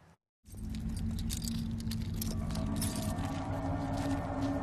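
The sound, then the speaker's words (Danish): Continuous metallic jingling and clinking of keys clamped between the fingers, with dense rattling transients after a brief silent gap at the start and no talking. “Nøgler klemt mellem fingrene, kun én høretelefon i øret.”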